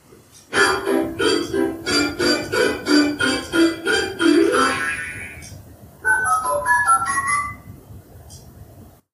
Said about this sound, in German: Ja, und natürlich wussten wir schon, was die Quelle dieser Geräusche war, nämlich ein Spieltischchen von Fisher Price, was unsere kleine Tochter ähm, ausgeliehen bekommen hatte vor zwei Wochen. Ähm, und ja, das Gerät war eingeschaltet